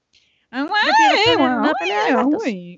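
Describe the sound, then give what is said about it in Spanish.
A voice imitates screechy, wavering cat yowls, like a beginner scraping a violin, sliding up and down in pitch for about two seconds, fairly loud. “pero un aprendiz de violín, es sí, una de gatos.”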